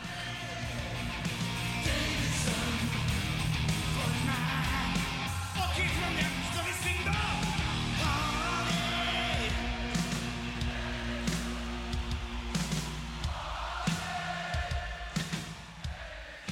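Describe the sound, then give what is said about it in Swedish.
A large concert crowd goes wild and sings along to every word, loudly and continuously, a dense wash of many voices with music underneath, with occasional shouts and whoops breaking out over the singing. “Och sen hör man hur publiken är helt galna och sjunger med i varenda ord.”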